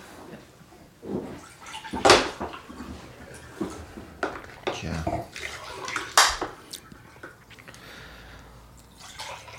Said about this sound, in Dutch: Dus schenk ik even wat water in.